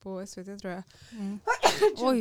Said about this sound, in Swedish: Oj, prosit.